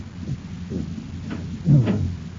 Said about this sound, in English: It's no use. Maybe somebody will hear us pounding and open the door. It's probably soundproof